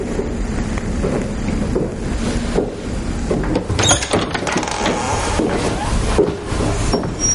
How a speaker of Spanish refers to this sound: William cierra la puerta de un vestíbulo iluminado levemente por unas velas.